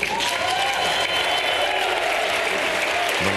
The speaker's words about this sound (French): ces applaudissements nourris, ce n'est pas pour vous, Christophe Lamar, bonjour. Bonjour. Mais pour Volodymyr Zelensky, le président ukrainien, a eu droit à une ovation hier à Bruxelles.